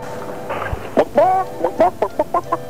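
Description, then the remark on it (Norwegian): A chicken clucks in a quick series of short, bright calls, a few drawn-out squawks followed by rapid evenly spaced clucks, clear with a faint hiss behind, from the 1993 Alfred Chicken Hotline telephone recording for the Nintendo game. “Red Crew er stolte av å presentere Alfred Chicken Hotline-telefonen som du kunne ringe i 1993.”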